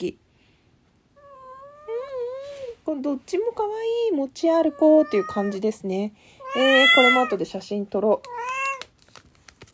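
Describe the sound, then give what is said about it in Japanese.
A cat meows repeatedly and loudly, its drawn-out, wavering cries coming in several bursts while a woman talks quietly alongside as she unboxes a package. “猫の鳴き声とともに開封の儀お送りさせていただきました。”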